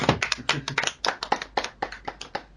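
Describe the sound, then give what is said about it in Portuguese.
A short round of applause for a singer's live stream: brisk, crisp hand claps in a quick, fairly steady rhythm for a few seconds, with no one speaking over them. “Aliás, live do …, uma salva de palmas.”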